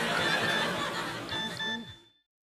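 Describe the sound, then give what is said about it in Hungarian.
A text message notification tone plays loudly for about two seconds: a warbling, whinny-like sound with bright sustained beeps near the end before cutting to silence. No one speaks. “Csak nem jól hallottam, hogy ez egy SMS volt.”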